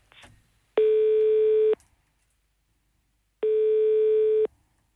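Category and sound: signal or alarm, telephone line tone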